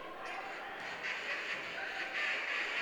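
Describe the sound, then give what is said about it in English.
Steady nasal, honking duck-call blasts rise out of a noisy crowd at a basketball game between Dordt and the Bulldogs during hunting season. The calls blend into the general arena din with no clear pauses. “Took me a little while to figure out what that noise is. Duck calls.”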